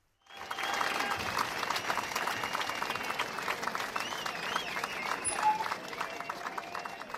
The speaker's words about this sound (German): Okay, okay, vielen Dank für den Applaus. Das war Gunsberts Megashow.